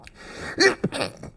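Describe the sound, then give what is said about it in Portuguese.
A sharp sneeze bursts out after a quick intake of breath, followed by a brief breathy snort and exhale, with no talking. “Eita. Saúde.”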